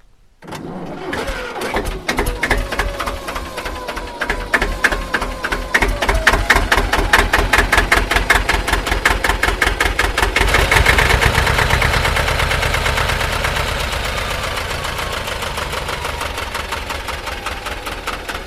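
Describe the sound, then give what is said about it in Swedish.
A diesel engine is started in warm weather. It cranks briefly, catches and starts, then settles into a loud, steady idle with a rapid, rhythmic knocking chug that continues to the end. “här startade som jag trodde. Det är ett härligt ljud.”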